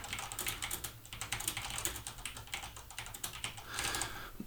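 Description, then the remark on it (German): Rapid, uneven clicking of keys on a computer keyboard, fairly loud, with a steady low hum underneath and no voices. “da ist er am Tippen wieder verrückte, ey.”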